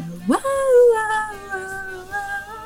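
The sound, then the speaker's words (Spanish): A voice imitates a 1990s ballad singer's characteristic high-pitched yelp: a sharp upward squeal that settles into a sustained, slightly wavering falsetto note, fairly loud, with no other sounds around it. “Así sus, sus grititos característicos.”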